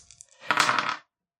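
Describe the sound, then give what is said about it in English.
Two dice rattle and clatter across a hard tabletop, a few light taps followed by a brief, bright tumbling burst lasting about half a second, fairly loud, with no talking. “So you do have two dice.”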